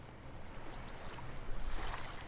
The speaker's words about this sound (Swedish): Lyssna på vågorna, de härliga vågorna.